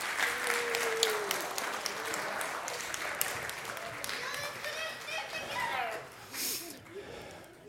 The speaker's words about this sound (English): A round of applause for all of our actors.